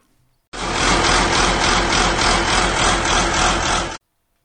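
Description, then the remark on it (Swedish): A large blue farm tractor, not brand new, idles loudly, its engine a steady deep rumble with a regular throbbing pulse, running for a few seconds before cutting off abruptly. No one speaks. “Det är en jordbrukstraktor och den, ja, om vi behåller det här Hälsingland-perspektivet så den var ju väldig när den kom”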